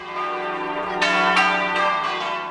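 Large church bells ring out in overlapping peals, rich sustained tones with fresh strikes every half second or so, loud and resonant with a long ringing wash and no voices.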